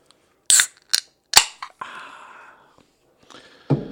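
A can of key lime LaCroix sparkling water is cracked open: a few sharp clicks and snaps, then a fizzy hiss that fades over about a second, followed by a couple more soft knocks. No one speaks.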